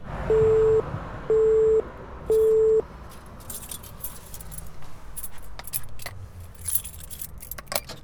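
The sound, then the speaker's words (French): Three steady electronic buzzer beeps like a door intercom at the Mémorial national de la prison de Montluc, then a jangle of metal keys and clicking latch sounds as a staff member unlocks and opens the heavy entrance door, with faint background hum. “Merci de patienter, un agent va venir vous ouvrir.”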